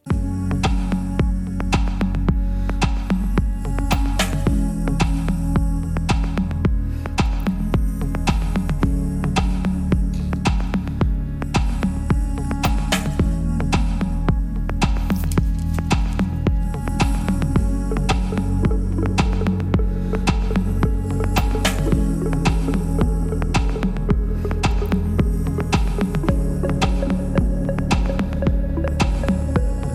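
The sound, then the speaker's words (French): A dense, droning music passage from an album track, with a steady throbbing low end and regular rhythmic pulses, the artist's own vocal buried deep in washes of reverb and echoing delay, loud and continuous throughout. “Exactement, noyé dans la réverb et, le délai, c'est moi.”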